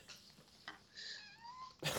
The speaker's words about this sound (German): Oh, ist das ein süßes Miau? Ja. Oh, das ist, das, ist, das ist ja ganz anders.